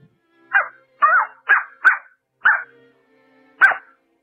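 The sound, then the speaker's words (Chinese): A voice imitates a small dog barking: six short, fairly high yaps, the first five in a quick uneven run and the last after a brief pause, with quiet between them. “先是小猫叫，然后是小狗叫，”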